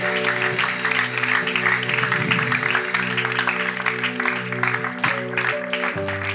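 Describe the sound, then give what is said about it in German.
Sustained applause from a sizable crowd after a prayer, for those who have just made the decision to follow Jesus, dense and steady for several seconds, with held keyboard or organ chords playing underneath throughout. “Lass uns wirklich allen mal einen Applaus geben, die die beste Entscheidung getroffen haben.”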